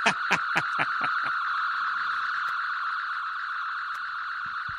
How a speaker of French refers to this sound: Euh, c'est quoi là ce bruit de réveil